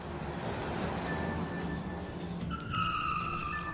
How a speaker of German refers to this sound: Und in diesem Moment hört ihr laut ein Auto aus dem Unterholz brechen. Ein, ein, Auto aus dem Unterholz brechen. Das kommt vorgefahren.